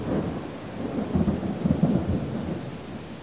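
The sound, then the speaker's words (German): Heavy rain pours down steadily while low thunder rumbles and swells through the middle, a dense, continuous wash of a short, heavy summer thunderstorm over a mountain village in Transylvania, with no voices. “Als ich das Kloster verlasse, entlädt sich die schwüle Sommerluft in einem kurzen und heftigen Gewitter über dem Bergdorf.”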